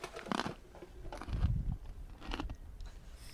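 Dry leaves crunch in several uneven bursts, fairly loud, with brief quiet gaps between the crackly steps or handfuls, and no talking.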